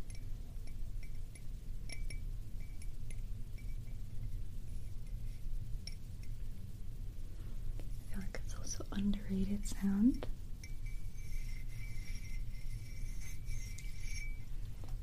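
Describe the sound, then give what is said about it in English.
Delicate, fragile glassy clinks with faint chime-like ringing tones, soft, sounding alongside quiet whispered speech. “sound that's very delicate and fragile, almost like chimes or something, right?”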